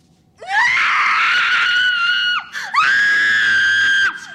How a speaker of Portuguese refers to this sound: Aquele grito da cordilha, às vezes eu tomo sustos. eu confesso.